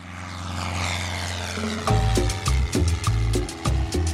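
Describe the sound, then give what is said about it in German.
A propeller plane drones steadily with a low, even engine hum, then a burst of louder rhythmic thumps and tones takes over in the second half, fairly loud. “Per Flugzeug landet ab den 1980er Jahren tonnenweise Kokain in Mexiko.”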